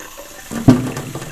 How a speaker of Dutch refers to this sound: Ik ga de heet waterkraan aanzetten. Bam, gaat het. Niet.